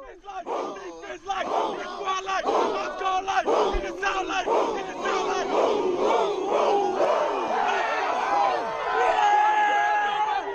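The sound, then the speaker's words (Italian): The theme intro of an Italian sports show, built from a loud, rhythmic crowd chant: voices shout together in repeated bursts, steady and energetic for about ten seconds with no solo speech over it. “di questo e di tanto altro parliamo dopo la sigla, palla 2.”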